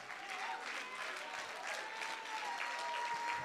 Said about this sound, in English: Someone clap, someone shout, someone stomp and let the enemy hear your praise. We're going to get them running today.